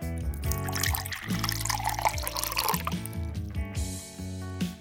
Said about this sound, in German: Stilles Wasser kann ja nicht wirklich prickeln, aber dafür bekommt man mit stillem Wasser das perfekte, unverfälschte Einschenken hin. Nur Wasser, sonst nichts. Prickelt nicht, erfrischt nicht, aber für den Grundsound ist das perfekt.